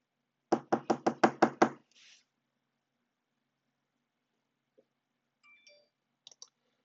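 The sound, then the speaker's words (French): Six quick, firm knocks on a desk in an even rhythm, made to imitate knocking at a door to test a device's sound recognition, followed by a brief scuff and a few faint clicks and rustles in otherwise quiet surroundings. “Et je vais simuler que euh, je frappe à la porte. J'ai tapé sur le, mon bureau.”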